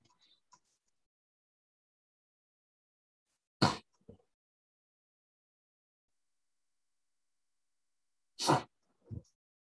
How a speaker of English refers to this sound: now I'm like, give get this woman a COVID test immediately. She's right. coughing. She's coughing.